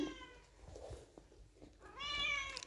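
A cat meows twice: a softer, fading cry at first, then after a short pause a louder, drawn-out meow. No one speaks.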